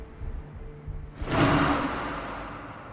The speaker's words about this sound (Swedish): Mitt dagdrömmande avbryts av en rullstol som svischar förbi i full fart precis bakom mig. Vindpusten får mitt nattlinne att fladdra till.